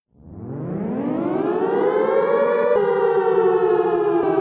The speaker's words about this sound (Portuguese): Um caminho varrido pelas sirenes alarmantes e os relâmpagos vermelhos do automóvel da polícia, disparado a mais de 100 por hora.